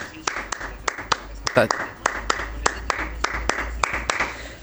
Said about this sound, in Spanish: Acá, desde Villa del Parque, van los aplausos.